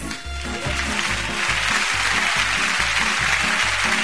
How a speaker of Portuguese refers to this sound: Aplausos para Dani Cruz.